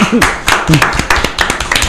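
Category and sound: crowd, applause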